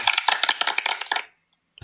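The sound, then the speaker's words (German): A short burst of applause: rapid, crisp claps for just over a second, then it stops abruptly into silence, with a brief sharp noise at the very end. “das war ein sehr herzlicher, aber sehr kurzer Applaus.”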